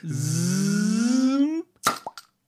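A long, rising squeak as a cork is worked loose, then a sharp, close pop as it bursts out of the bottle, followed by a couple of softer clatters.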